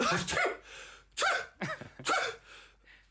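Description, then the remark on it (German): A sneeze among a series of sharp, breathy bursts spaced over a few seconds, fairly loud, with no talking. “Gesundheit. Nieser retten auch aus Konversationen raus, wenn man, wenn man sich ganz klar verrannt hat.”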